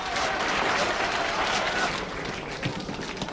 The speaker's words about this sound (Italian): Bravo, bravo! 92 minuti di applausi!